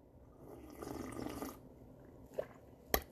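A short stream of hot water splashes into a tea cup for about a second, followed by two small sharp clinks, fairly quiet, with no one talking.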